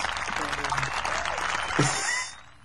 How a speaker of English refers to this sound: where's my clap button?